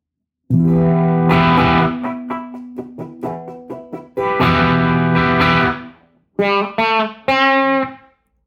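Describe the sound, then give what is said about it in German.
A distorted electric guitar, with reverb switched off and gain turned up a little, plays dry, sustained chords and a few choppy stabs with abrupt stops, loud with no reverb tail, and nobody speaking. “Das klingt ja furchtbar ohne Reverb.”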